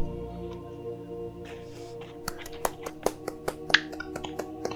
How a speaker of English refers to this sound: Let's give a round of applause to Brad.